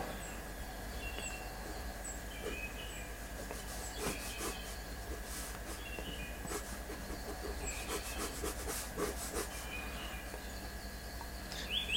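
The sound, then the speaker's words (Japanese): Quiet scratching of a pen or pencil drawing picture number 2, showing a setter character, on paper: a series of short irregular strokes over a faint steady background hum, with no one talking. “2番の絵を描いてます。”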